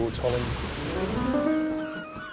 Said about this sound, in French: de grosses vagues viennent directement sur nous et il fait très froid.